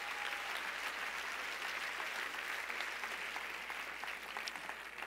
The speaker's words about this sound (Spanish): Si ese es el aplauso.